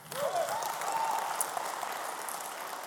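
A short burst of audience applause, a steady wash of many hands clapping at moderate volume for about three seconds, with no one speaking over it.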